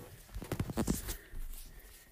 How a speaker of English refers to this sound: is the ooh typing is the Hyundai. I do not remember how to spell Hyundai for the life of me.